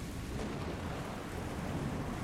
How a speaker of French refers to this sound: En pleine mer, le vent commence à souffler fort. Une énorme tempête secoue le bateau.